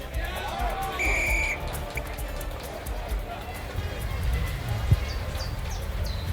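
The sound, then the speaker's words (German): A single short, shrill referee's whistle blast starts a football match against the Los Angeles Blizzards, followed by a steady murmur of crowd noise and the thud of running footsteps on a field. “Dann pfiff der Schiedsrichter das Spiel an.”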